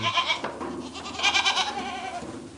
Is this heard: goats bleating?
yes